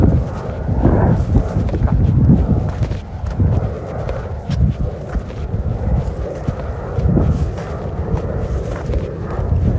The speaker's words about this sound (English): Plane crosses over.